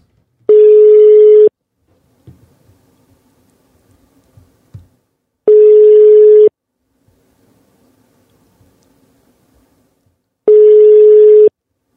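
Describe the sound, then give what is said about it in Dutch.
A phone ringback tone repeats three times while calling someone who is online, each steady electronic beep lasting about a second with long silent gaps between, and the call goes unanswered. Faint small rustles sit in the pauses. “Dan gaan we eens even bellen. Hij is online, zie ik zelfs.”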